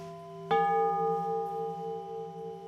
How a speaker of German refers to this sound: eben der Pfarrer seinen Gottesdienst eben machen und dann die Glocken anspielen, was dann erhaben ist. Was nach oben steigt.